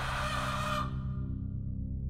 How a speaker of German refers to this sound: Panik bei der Fütterung, Gekreisch. Die Hennen stürzen übereinander, picken ihre Käfiggenossen, hacken sie manchmal zu Tode.